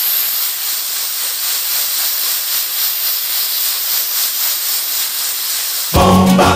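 A pressure cooker valve hisses steam loudly and continuously, with a faint rhythmic pulsing, before a sudden louder burst of noise right at the end.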